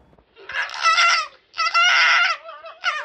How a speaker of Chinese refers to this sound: 那狐狸是这样叫的。